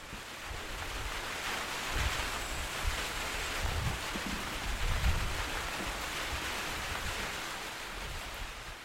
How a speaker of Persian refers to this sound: خب میخواستم امروز براتون یه آهنگ بزنم ولی اولش بریم سرای بارون رو گوش کنیم